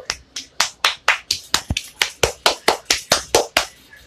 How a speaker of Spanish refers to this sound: Bueno, muy político. Un aplauso.